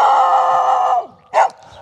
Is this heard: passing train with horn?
no